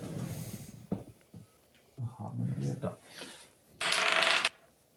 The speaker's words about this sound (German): Oder, oder genau, lasst uns doch mal würfeln mit einem äh, W12, wie viele Rehe ihr bekommt.